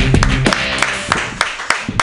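An audience clapping in a dense, steady wash of applause, with a few sharper individual claps standing out and faint voices or cheers mixed underneath.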